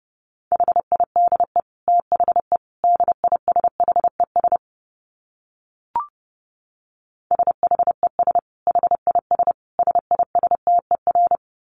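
Fast Morse code at about 30 words per minute: a steady mid-pitched beep keyed into rapid dots and dashes, sent in two bursts separated by a pause with a single soft click.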